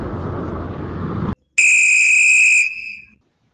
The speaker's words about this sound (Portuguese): O som do apito sinaliza o fim do primeiro tempo e o início do intervalo